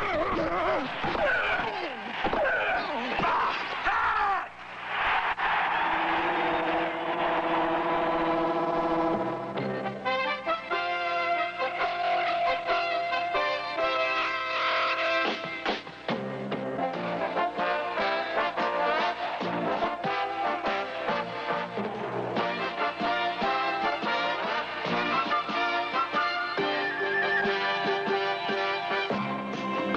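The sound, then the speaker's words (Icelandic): Music in an American football game style from around 1978 plays loudly and without pause, with dense, sustained horn-like chords and shifting harmonies. No one speaks. “Nokkrir tónar úr stemningunni í ameríska fótboltanum í kringum árið 1978 skeitt þarna aftan við umfjöllunum nýjustu myndlistarafurð bandaríska myndlistamannsins Matthew Barney.”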